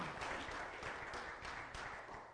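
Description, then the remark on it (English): A crowd applauds together in a hand clap of praise to Jesus, a dense, sustained wash of hand claps, loud and steady for a couple of seconds with no voices over it. “Let's give Jesus a hand clap of praise.”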